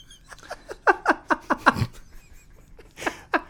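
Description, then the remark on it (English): A voice imitates Carlos Danger whispering, with a rapid series of breathy, hissing puffs, about a dozen short bursts in an uneven rhythm, fairly soft, with no clear words. “Whispering into our ears.”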